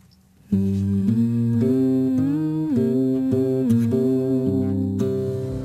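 A song from the soundtrack of the video game Bastion plays after a brief quiet moment, with loud, sustained tonal notes shifting steadily from chord to chord and no talking over it.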